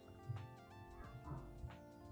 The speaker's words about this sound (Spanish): Y los perros. Siempre los perros acompañan